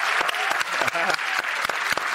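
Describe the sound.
A round of applause from a group on a TV programme, dense rapid clapping at a steady loud level for a couple of seconds, with a brief voice cutting in partway through.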